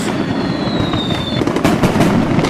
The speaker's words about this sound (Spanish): Muchachos, esos muchachos de Tultepec, venga. ¡Fuete! Gasten esa dinamita. de Tultepec, traen sus cohetes, sus, aquí la pirotecnia, fireworks.